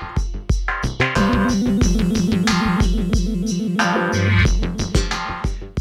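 Electronic synth-pop plays steadily, with punchy rhythmic beats, sustained synthesizer chords and a bouncing bass line, fairly loud and continuous with no voices.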